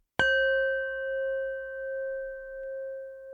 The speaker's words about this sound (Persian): شما فقط سعی بکنید که به صدای این کاسه تبتی توجه بکنید میخواین هر باری که این صدا اومد